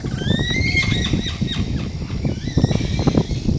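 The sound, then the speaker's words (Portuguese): A loud, neigh-like animal call, a series of high quavering whinnies that taper off, set against dense rustling forest background noise with no one talking. “parece que você tá com, né, com um cavalo dentro da mata. É um relincho mesmo, é, é eu não consigo nem imitar direito, né, mas o pessoal vai ouvir aí e vai sentir, né, o drama dessa vocalização.”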